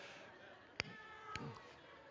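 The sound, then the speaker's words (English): A few scattered, faint meows from a crowd of people imitating a cat, asked to meow as a morning vote, quiet, with a couple of sharp knocks breaking through. “If you feel like the cat this morning, can I just get a meow from the crowd out here?”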